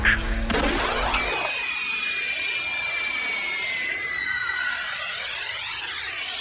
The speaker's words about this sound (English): When you hear that bomb blast, get a shot glass.